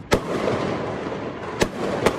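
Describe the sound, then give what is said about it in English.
Fireworks going off outdoors: three sharp, loud bangs spaced irregularly over a couple of seconds, with a steady hiss of background noise and faint crackle in between. “Just enjoy the fireworks.”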